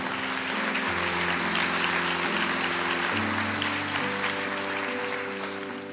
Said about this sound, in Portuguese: Aplauda o Senhor.